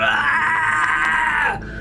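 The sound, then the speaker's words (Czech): A person vocally imitates a creature screeching in the air: one sustained, strained, high-pitched shriek lasting under two seconds, loud, cutting off abruptly at the end. “Um, no a vy tam takhle jako vběhnete a ono tam vlastně takhle jako ječí je ve vzduchu”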